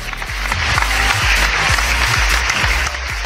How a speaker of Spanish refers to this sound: Aplausos para los amigos del TikTok.